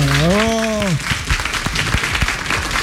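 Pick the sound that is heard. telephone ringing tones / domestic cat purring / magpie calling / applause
applause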